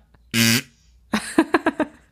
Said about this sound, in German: das ist wie genau. so ein Buzzer. wie ein Buzzer-Sound. Hört sich ähm, an, naja, hört sich irgendwie an wie so ein ziemlich kaputter Furz.